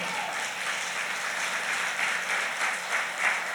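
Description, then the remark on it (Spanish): A crowd applauds the pastors of their church steadily, many hands clapping in a dense, continuous wash of sound that holds at an even level throughout with no voices standing out. “Denle un fuerte aplauso a esos pastores.”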